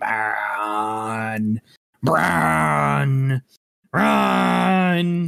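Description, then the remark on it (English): A voice imitates an ominous Christopher Nolan-style cinematic braam swell, droning three long, loud, low blasts, each held about a second and a half, with short silent gaps between them. “The ominous swelling.”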